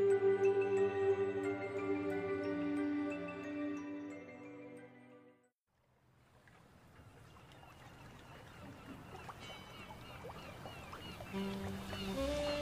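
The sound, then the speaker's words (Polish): A ship's bell rings out with long, sustained tones that fade to near silence, then a steady rush of river water rises, with scattered seagull cries calling over it. “Słyszysz dźwięk dzwonka statku, mewy, także i szum rzeki.”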